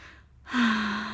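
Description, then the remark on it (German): A deep breath pushed out audibly after a short pause during a guided breathing exercise, a breathy exhale with a faint voiced hum underneath, sustained to the end. “Und wieder ausatmen.”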